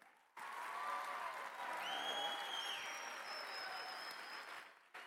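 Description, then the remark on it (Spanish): Loud, sustained audience applause for the Lord, given after the audience is urged to clap better, starts abruptly and holds steady for several seconds, a dense wash of clapping with a few faint whistles or tones riding above it, then cuts off. “Ahora, ahora, usted puede aplaudir mejor que eso, puede aplaudir mejor que eso.”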